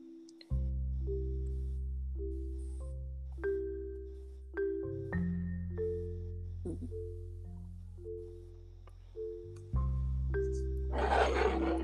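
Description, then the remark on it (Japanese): A loud stomach growl: long, low, droning rumbles that shift pitch in steps for over ten seconds, ending in a brief hissing gurgle. No one speaks. “友達のこと思いあめっちゃ腹が すごいすごい効果音かと えめっちゃ聞こえたうんピヨーンって 綺麗になったよさっきからぐるぐるぐるぐるなってる”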